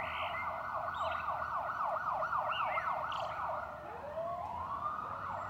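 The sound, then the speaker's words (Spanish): Emergency sirens wail in a fast, rising-and-falling pattern, a second siren sweeping in near the end, sounding somewhat distant over a steady low rumble of traffic. No one speaks. “Cuando a lo lejos comienzan a escucharse las sirenas de emergencia, el pájaro ya se encuentra recogido en su nido y el mundo aparenta seguir siendo un lugar tranquilo y quieto.”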